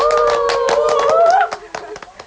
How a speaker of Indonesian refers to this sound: Dan aku juga mau ngucapin selamat buat kalian ya udah terpilih jadi caketos. Tepuk tangan dong.